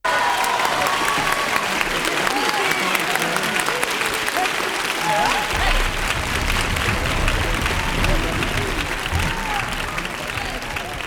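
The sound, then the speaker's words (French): Sustained applause from a large audience after a song fills the whole stretch, a dense steady clatter of clapping with some scattered voices and cheers mixed in, loud throughout. “sous vos applaudissements.”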